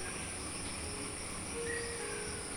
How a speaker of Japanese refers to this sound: 朝まだ暗い川べりでカヌーに乗り込む頃にはカエルの鳴き声が辺りに響いている